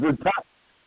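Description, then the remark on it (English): A phone call voice, thin and band-limited, comes through in two short choppy fragments, then cuts out abruptly into near silence as the connection breaks up. “you're breaking up.”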